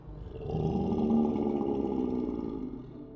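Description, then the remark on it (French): A deep, sustained werewolf roar sound effect, loud, swelling and holding for about three seconds with a rough, growling texture, alone without any talking. “Ils sont le résultat d'une créature maléfique qu'on appelle un loup-garou.”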